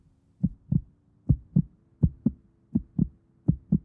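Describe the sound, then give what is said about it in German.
A faint, muffled heartbeat thumps in steady lub-dub pairs, five beats in a slow even rhythm, low and soft with nothing else audible. “Der Patient befindet sich in kritischem Zustand. Herztöne schwach.”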